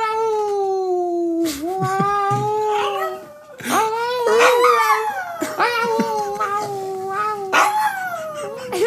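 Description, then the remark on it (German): A dog whines and vocalizes in a long run of high, wavering, drawn-out cries that slide up and down in pitch, with only brief breaks between them. “du bist der süßeste Hund der Welt, ich liebe dich.”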